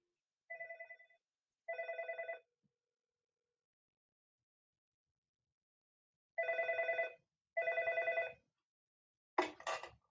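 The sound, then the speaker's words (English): An outgoing phone call rings back: two short double-pulsed ring tones, a pause, then two more, ending with a brief click-like pickup sound. Clear and alone, with no talking. “I'm going to call you. So make sure make sure you pick up the phone”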